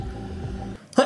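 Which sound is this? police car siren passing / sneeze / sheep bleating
sneeze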